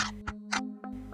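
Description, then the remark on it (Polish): Rhythmic tapping of a legless body dragging itself along the ground, filling a railway station and approaching quickly, with about four evenly spaced hits over a steady low hum, fairly quiet. “Całą stację wypełnił dziwny odgłos przypominający stukanie czy rytmiczne przesuwanie czymś po ziemi.”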